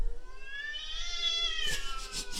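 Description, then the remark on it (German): A cat lets out a long, drawn-out yowl that slowly climbs in pitch, then breaks into harsh, noisy hissing bursts, caterwauling in a territorial standoff against another cat. No one speaks. “die hat Revier gegen so eine andere Katze”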